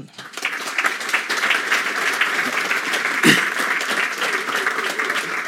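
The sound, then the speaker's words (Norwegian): Steady applause from a sizable audience welcoming authors Hans Olav Lahlum and Atle Grønn at an event, a dense wash of many hands clapping at an even level for several seconds, with a brief louder burst midway. “Det pleier jeg alltid å si når applausen dør ut uansett.”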